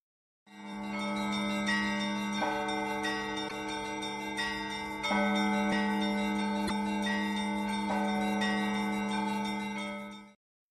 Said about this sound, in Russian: Очень много церквей, чудесных, старинного вида. Великолепный колокольный звон. Удары упругие, четкие.